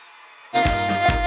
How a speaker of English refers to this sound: On the count of three, I want you to call out the birthday person name real loud. On three, you ready? Uh, one, get ready to scream. Two, get ready to scream. One, two, one, two, uh, scream.